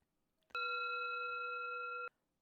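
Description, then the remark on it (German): A doorbell rings as one steady, buzzing electronic tone lasting about a second and a half, starting and stopping abruptly. It sounds loud and alone, with no talking. “Huch, da klingelt es ja schon an der Tür.”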